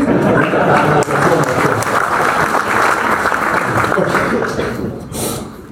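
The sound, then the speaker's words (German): A large audience claps steadily and loudly for several seconds, a dense wash of many hands that thins out slightly toward the end. “Und, ähm, jetzt sollten Sie klatschen.”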